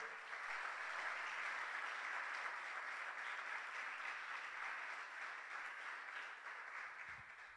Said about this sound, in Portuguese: Se você quiser, pode aplaudir ao Senhor.